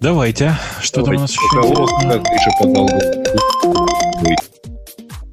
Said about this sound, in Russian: Это мой телефон вдруг заревел.